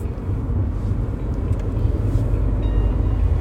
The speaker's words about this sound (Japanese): なお今回はドライブ中の収録になります。ロードノイズが入りますがご容赦ください。